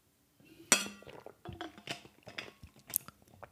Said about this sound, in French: Excusez-moi, je, une petite gorgée d'eau.